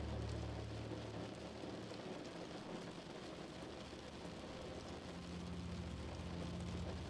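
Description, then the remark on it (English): Steady rain patters against a window in a dense, continuous hiss of small taps, holding an even loudness throughout, with a faint low rumble underneath and no voices. “With only your ears being aware of anything, you only attend to the sound of the rain in helping you into sleep.”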